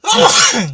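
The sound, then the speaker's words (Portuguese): A single loud sneeze, a sudden breathy burst that trails off quickly into a rough exhale. “Nem espirro era para existir, né?”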